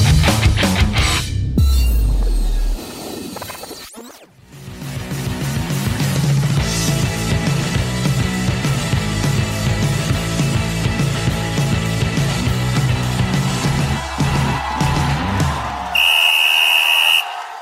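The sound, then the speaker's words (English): A single loud, shrill whistle blast rings out near the end, held for about a second, following a noisy stretch of crowd-like clamor and music. “You heard the whistle, and it's that time again.”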